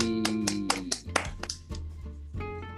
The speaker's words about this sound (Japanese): 日本で働く公認会計士とアメリカで働く公認会計士のぼやき聞いてちょうだいパチパチパチ